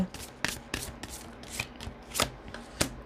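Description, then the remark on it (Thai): Oracle cards being shuffled for a Capricorn reading, a run of crisp papery slaps and riffles coming in irregular bursts roughly every half second, with soft rustling between them and no talking. “เดี๋ยวแม่หมอดูไพ่ Oracle ให้คนมังกรนิดนึงนะคะว่าเป็นอย่างไร”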